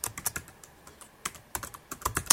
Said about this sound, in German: Dieses Lesezeichen benenne ich jetzt mal um. Ich drücke hier Enter Lesezeichen.